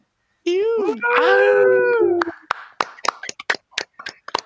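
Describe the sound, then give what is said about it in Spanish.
A long, wavering howl-like wail, then a short burst of sparse, uneven hand claps, a few sharp slaps spaced irregularly over about two seconds. “Y recuerden que mientras no dejen de aplaudir, no dejamos de jugar.”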